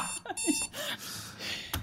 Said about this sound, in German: Wo ist dieser Wecker? Woher kommt dieses Geräusch? Ah!